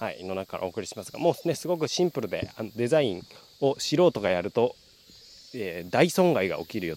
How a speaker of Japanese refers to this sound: 新潟県佐渡島の山からお送りしますわーっと景色がいいですね水が流れる音聞こえますでしょうかそしてセミの声とね、